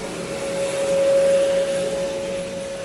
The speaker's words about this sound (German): Das war übrigens im Hintergrund ein Airbus A320 Neo.